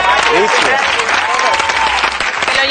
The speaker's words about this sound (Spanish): ¡Un aplauso para